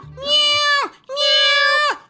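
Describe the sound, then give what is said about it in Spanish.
A person dressed as a cat imitates a cat, giving two drawn-out, nasal meows in a row, each about three-quarters of a second long, loud, with a brief pause between them. “¡Miau! ¡Miau! ¡Miau! ¡Miau! ¡Miau!”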